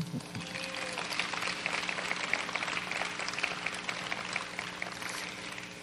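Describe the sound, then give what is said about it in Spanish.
An audience applauds steadily, a dense wash of many hands clapping that holds at an even, moderate loudness throughout without fading or building. “Bueno, denle un aplauso.”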